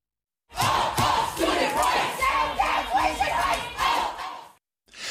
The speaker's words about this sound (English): Many students and faculty who you hear here protesting at a Board of Trustees meeting yesterday say the hikes would put higher education out of reach for many.